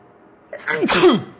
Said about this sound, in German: Und ich werde jetzt gleich mal niesen müssen, befürchte ich. Aber nicht ins Mikro.